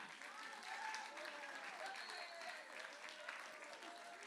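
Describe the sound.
An audience at a preach claps steadily for a man on stage, a dense, continuous wash of applause lasting the whole stretch, with a few voices faintly calling out underneath.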